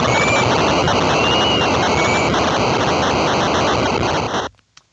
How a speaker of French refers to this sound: Et la foule est également en 8 bits.